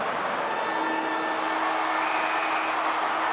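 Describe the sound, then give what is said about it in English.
A football stadium's final siren sounds as one long, steady blaring tone over the constant loud roar of a huge crowd of 46,000 people at Etihad Stadium, with no voices standing out, at the close of a match between North Melbourne and the Bombers. “There's the siren and 46,000 people here at Etihad Stadium are on the edge of their seats.”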